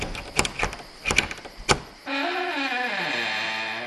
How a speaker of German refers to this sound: Und die Tür von dem Geräteschuppen war aufgeknackt.